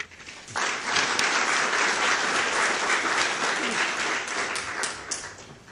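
An audience breaks into sustained applause welcoming speaker Jim Adams, a dense wash of many hands clapping at steady volume for several seconds before tapering off near the end, with no talking over it.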